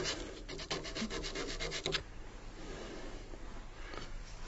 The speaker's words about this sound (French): Alors après, si on, on veut bien finir le travail qu'on a fait à l'outil, c'est au papier de verre. Alors ça, c'est plus long, parce qu'il faut passer partout, dans les petits endroits, et puis on fait tout ça à la main, quoi.